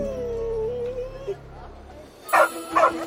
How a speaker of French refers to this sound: se mit à aboyer, comme pour indiquer une direction à sa maîtresse.